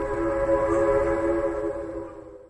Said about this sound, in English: At night, I used to hear the Long Island Railroad horn blow, and I tell you, going to bed at night, I'd cry my eyes out. I just wanted to get on that train.